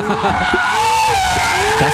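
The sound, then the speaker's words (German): A Ferrari sports car skids with loud, sustained tire squeal, sliding tones wavering over a rough engine roar, intense for the whole moment. “Also das ist ein Ferrari, da sind wir uns einig.”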